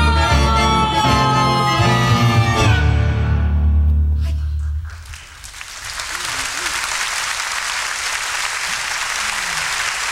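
A sung melody with instruments, recorded live in Tokyo, Japan, in June 1988, swells to its final notes, then a broad wash of audience applause rises and continues steadily, loud and sustained, with a few faint voices mixed in.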